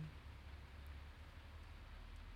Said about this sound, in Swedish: Ja, nu regnar det. Ja, men det, det, ser inte ut som att det kommer några så här riktigt stora moln utan det känns som att det stannar vid den här eh, mängden.